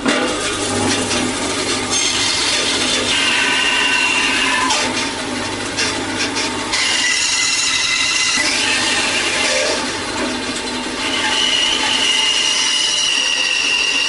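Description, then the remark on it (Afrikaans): A band saw runs steadily and loudly, cutting the corners off a chunky block of wood, its high whine and rasping cut continuing for the whole stretch, easing briefly before picking up again, with no talking. “So een van die maniere wat jy kan doen is sit hom op die bandsaag en saag eers al die hoeke af.”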